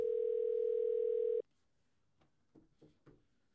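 A steady telephone dial tone hums for over a second, then cuts off and gives way to a few quick, quieter dialing beeps spaced unevenly. No one speaks.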